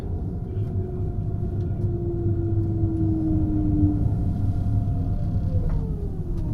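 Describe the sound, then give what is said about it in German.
An ICE 3 high-speed electric train, driven by Michael Hartke, pulls punctually into Halle main station (Hauptbahnhof) with a steady low rumble and a sustained whining tone that slowly glides downward as it slows, with faint higher squeals layered above. “steuert Michael Hartke seinen ICE 3 pünktlich in den Hauptbahnhof von Halle.”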